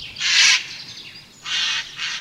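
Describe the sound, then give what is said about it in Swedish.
A corvid gives an unusual harsh, rasping call, three loud drawn-out bursts, the first longest, separated by short pauses, with no talking. “Det här är inget läte som jag hör särskilt ofta.”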